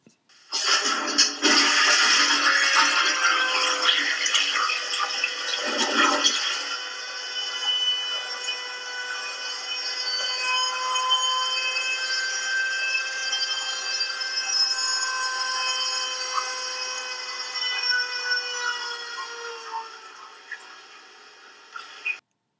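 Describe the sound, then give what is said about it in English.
A loud rushing toilet flush for several seconds, then the toilet's alarm: a steady, piercing multi-tone whine that holds for about fifteen seconds before slowly fading. No one speaks. “Uh, that toilet made that sound every single time I flushed it.”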